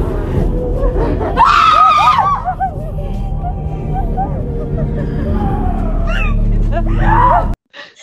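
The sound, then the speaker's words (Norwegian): Loud, shrill screaming rises over a dense rumble of background noise, with several piercing, wavering shrieks bursting out in quick succession before the sound cuts off abruptly. “så, så, som dere hører der, så eh, er det Jeg er litt usikker på om det er meg eller spøkelset som skriker.”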